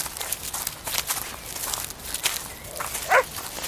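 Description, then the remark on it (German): A single sharp dog bark rings out near the end, rising above steady crunching footsteps and a constant rustling hiss of movement as people hurry along a path searching for a runaway dog. “Da hat doch jemand gebellt und es klang wie Wuschel.”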